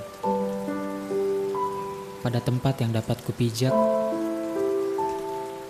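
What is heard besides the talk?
rain falling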